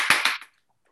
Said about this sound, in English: so um, he is do, let, let, me do a hand clap.